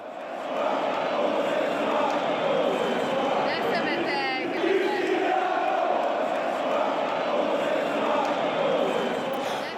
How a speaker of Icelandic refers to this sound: Hlustið bara á óvildarmenn Ronaldos í stúkunni.